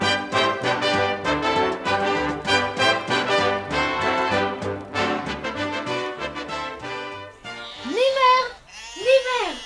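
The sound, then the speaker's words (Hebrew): Two loud, wavering sheep bleats come near the end, one after the other, following a stretch of rhythmic instrumental music; the sheep are heard on a stormy winter day by Camel Hill, belonging to Bedouins who have returned. “ויום סוער אחד, כשדהרתי על דיאבולו אל גבעת הגמל, שמעתי לפתע קולות. מה זה? כבשים!”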